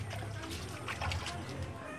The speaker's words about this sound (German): Pascal Uma Okello sitzt vor einer Metallschüssel. Mit der bloßen Hand rührt er durch schlammiges Wasser.